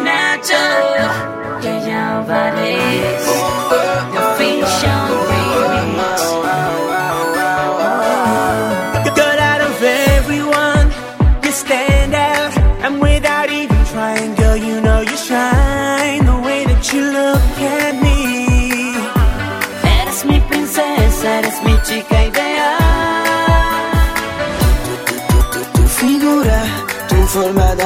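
A Latin pop song intro plays loudly and steadily on the Top Latino music program, layered synths and melody first, then a thumping beat kicks in about ten seconds later with a regular bouncy rhythm. No voices.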